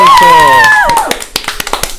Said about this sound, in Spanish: Hoy nos acompaña un monumento, una leyenda viva del Instituto Dr. Hein Weisman, para quien pido un fuerte aplauso